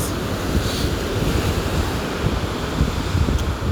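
Steady roar of ocean waves breaking on a shore, heard from about 6 to 8 metres above sea level, with gusty wind buffeting the microphone throughout; a continuous, fairly loud wash of surf with no voices.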